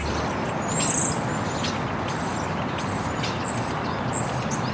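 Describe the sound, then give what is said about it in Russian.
Steady city traffic rumble fills the background while small birds chirp repeatedly in short, high, bright bursts every second or so, clearly audible above the street noise; an example Earth city sound from NASA's Sounds on Mars website. “Ну, в качестве примера, вот звук города, в котором чирикают птички.”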